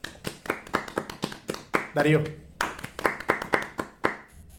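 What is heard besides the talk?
hand clapping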